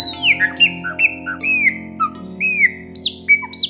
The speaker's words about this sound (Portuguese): de repente, ficou emocionado ao ouvir um melro cantando alegremente, como se estivesse agradecendo a Francisco aquela oportunidade de ouvir sobre Jesus.